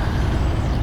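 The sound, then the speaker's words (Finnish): A heavy truck rumbles past, a loud, steady low-pitched engine roar with a broad airy hiss layered over it, with no voices. “Onko tuo teurastamon rekka?”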